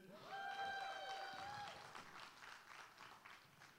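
At a speaking event, an audience cheers and claps together for a birthday: a loud, high whoop or whistle rises over the crowd at first, then steady, dense applause carries on and gradually thins out.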